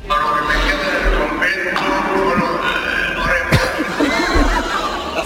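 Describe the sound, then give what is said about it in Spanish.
A burp breaks into a speech at a podium, cutting the speaker off mid-sentence, followed by an audience chuckling and snickering, a crowd's laughter rolling on over the room's steady murmur. “bueno, el caso es que dijo, para lo que me queda en el convento, y no termino la frase porque... Eh, eructó.”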